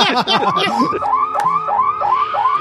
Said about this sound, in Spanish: Este es el sonido original de la alarma, ¿no?